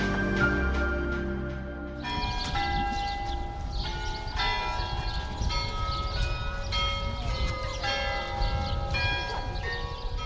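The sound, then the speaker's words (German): Carillon bells in Petersburg play Dmitri Bortnyansky's slow chorale Ich bete an die Macht der Liebe, one tuned strike after another with long, shimmering overtones that overlap. The bells are loud and steady, preceded by a brief low rumble, with no voices. “Und irgendwie passen Glockenspiel und Melodie zu diesem Ort.”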